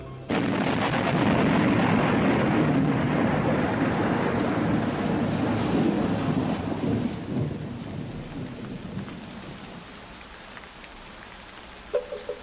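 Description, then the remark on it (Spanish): A thunderstorm with heavy rain pours steadily while deep thunder rumbles and rolls, the downpour easing gradually toward the end with a few drips and patters. “La lluvia aflojó la tierra y tres días después asomó sus hojas una mata de maíz.”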